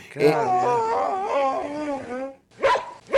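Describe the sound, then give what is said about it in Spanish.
A dog lets out a long, wavering, high-pitched whimpering howl, then after a short pause gives a couple of brief yelping cries, fairly loud with no one talking. “Sí, a ese perro no está bien.”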